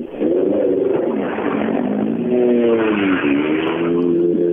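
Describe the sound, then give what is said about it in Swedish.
A rally car, start number 41 driven by Kent Östlund, drives past, its engine roaring loudly throughout, the pitch climbing and dipping through several revs and gear changes. No one speaks. “Och där kom Kent Östlund förbi också, startnummer 41, som eh, har väl kommit upp från diket då.”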